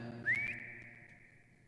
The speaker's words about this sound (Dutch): Het fluitje van … natuurlijk. Het, het bekende fluitje.